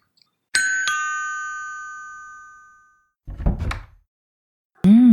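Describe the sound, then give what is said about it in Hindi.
A two-tone doorbell chime rings and slowly fades, then a short clatter of a house door being unlatched and quickly opened. A voice starts speaking right at the end. “दरवाज़ा तो जल्दी खोल दिया”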